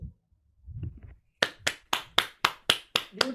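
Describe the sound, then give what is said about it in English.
A single person, unmuted on an online call, claps hands eight times in a quick, steady rhythm, sharp, after a brief stretch of faint low rumbling. “I had to unmute and clap.”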